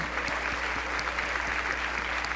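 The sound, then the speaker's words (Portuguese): An audience applauds steadily throughout to give glory to God, a dense, even wash of clapping with a faint regular thump pulsing underneath and no voices standing out. “Vamos dar um glória a Deus, aleluia!”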